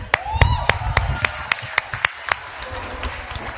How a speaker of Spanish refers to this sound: Un aplauso al worship.